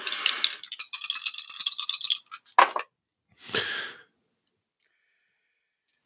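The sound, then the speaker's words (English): Dice rattle loudly in a cupped hand for about two seconds, a bright clattering shake, then tumble out with a quick clack, followed by a short breathy sigh. A fresh, different set of dice is being shaken and rolled. “All right, here's a fresh new set of dice. Come on.”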